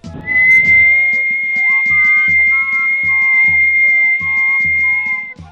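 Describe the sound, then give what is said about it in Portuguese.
A long, steady high whistle holds one piercing note for several seconds, loud and close as if right at the ear, near a main parish church, while a low rhythmic pulse thumps beneath it and a second tone slides in halfway through. “Mal fez o sinal da cruz e, novamente, o assovio, bem mais alto, como se fosse no pé do ouvido dele.”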